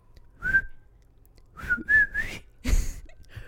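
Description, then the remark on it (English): A person whistles a short tune imitating a cartoon theme song: one note, a pause, then a quick rising run of notes, clear, ending in a breathy burst of noise. “and I would jump, like leap off the couch and try to turn it off really fast so that she wouldn't hear the theme song.”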